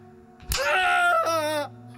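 A sharp, loud slap of a strike, like a belt lashing, is followed at once by a long, anguished scream from a man, briefly breaking before trailing off.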